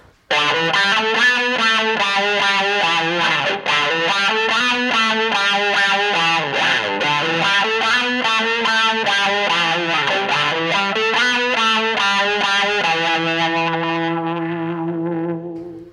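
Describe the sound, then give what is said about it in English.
An electric guitar through a fuzz pedal plays a melodic motive physically backwards (retrograde), saturated, thick and buzzing with rich harmonics, notes sliding and bending up and down before settling on a sustained chord that fades out. No one speaks. “I'm going to use a technique that's called retrograde, which means I'm basically going to flip the motive backwards and play it backwards.”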